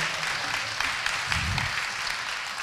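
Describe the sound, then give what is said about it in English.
A crowd applauds a church worship team, clapping steadily in a dense, continuous patter of many hands at moderate loudness, with a brief low murmur of voices mixed in partway through. “In fact, why don't we just give this worship team a round of applause?”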